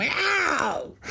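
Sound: person imitating a cat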